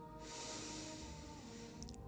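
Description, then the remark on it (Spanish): A long, steady inhale through one nostril while the other is closed with the thumb, a soft airy hiss drawn in for about two seconds, fairly quiet, ending with a couple of faint clicks. “La semana que viene les voy a, voy vamos a hacer la inhalación vipassana, que es tapando un orificio de la nariz con el pulgar y por el orificio que está destapado inhalar.”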